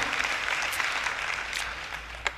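An audience applauds God and Jesus steadily, a dense wash of many hands clapping at once, holding an even, fairly loud level throughout with a few sharper claps standing out near the end.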